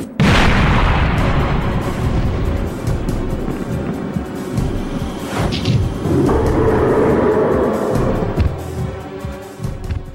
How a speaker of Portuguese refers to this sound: O chão do nível onde ela está subitamente começa a tremer, e após um estrondo repentino, pedaços de concreto voam por todos os lados.